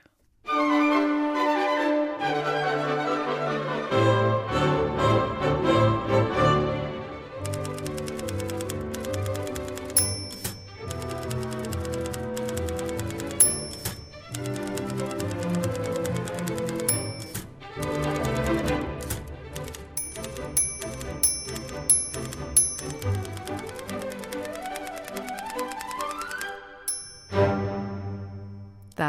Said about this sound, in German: Eine alte Schreibmaschine soll man nicht wegwerfen. Man kann noch super Musik auf ihr machen.